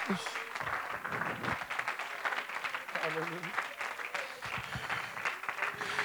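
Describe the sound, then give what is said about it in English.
An audience claps hands in a dense, continuous burst of applause that lasts throughout, with voices calling out over the clapping. “I wonder what somebody clap your hands.”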